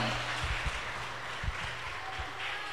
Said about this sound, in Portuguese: Você pode aplaudir mais forte ao Senhor, amém?